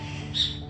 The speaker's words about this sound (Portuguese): Gente, tem um passarinho cantando aqui, tá? Um sabiazinho, então vocês vão ouvir, acho que vocês vão ouvir o canto dele, tá?